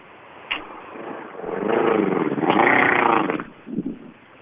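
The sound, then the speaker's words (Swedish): A voice imitates the rough, sputtering engine of a three-cylinder car, a wavering, growling drone that rises and falls for a couple of seconds, with a short uneven burst at the end. “Han åker med en trecylindrig bil.”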